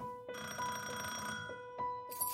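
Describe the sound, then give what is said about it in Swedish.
An electric doorbell rings several times at the door of a fifth-floor apartment at Furusundsgatan 14, a sustained, buzzing burst, then short repeated presses, loud with a steady tonal hum and no voices. “Han beslutar sig för att låna lägenhetsnycklarna av Gullbrita och tar sig därefter ut till Furusundsgatan 14 där han flera gånger ringer på dörren till Ingrids och Gullbritas lägenhet på femte våningen.”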